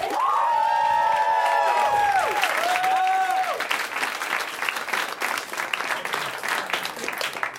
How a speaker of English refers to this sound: You guys get that you're voting, right? Not just fucking clapping.